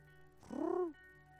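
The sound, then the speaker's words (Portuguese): A single short, throaty coo made by a human voice imitating a pigeon, rising and then gliding down over about half a second, fairly loud with no talking around it. “Imagine agora aqui, ó, uma pomba sentada no meu ombro. Uh, né? Uh, vou chamar alguém para fazer o barulhinho.”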